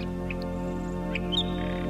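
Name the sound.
nightingale singing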